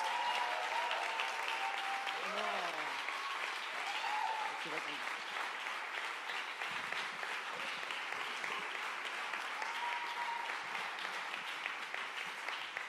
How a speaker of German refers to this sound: Gebt ihnen einen maximalen Applaus.